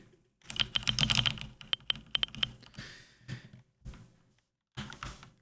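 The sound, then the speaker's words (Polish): Rapid keyboard typing with caps lock on, a quick burst of clicky keystrokes followed by a few sparser taps, with short bright tones from a screen reader set to always signal caps lock sounding alongside some of the key presses. “Jeśli ja teraz zacznę znowu pisać z włączonym caps lockiem, a mam ustawioną opcję zawsze.”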